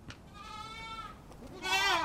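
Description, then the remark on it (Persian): A goat bleats twice, a long wavering cry followed after a short pause by a louder, higher quavering bleat, with no voices present. “بزی با بچه هایش در اطراف پرسه میزد”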